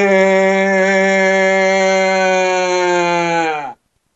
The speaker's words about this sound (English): That's a fundamental warm up called a yawn sigh.